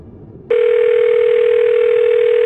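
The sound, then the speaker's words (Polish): A steady telephone dial tone from a mobile phone starts abruptly after a brief quiet moment and holds at a constant pitch and loudness, clear, with no voices. “Wyciągnąłem z kieszeni komórkę, chcąc sprawdzić, czy Dorota ma już włączony telefon.”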